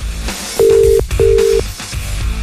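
Two steady ringback tones sound on a phone line during a call that goes unanswered, each lasting about half a second with a short gap between, fairly loud over a faint background hum and no talking.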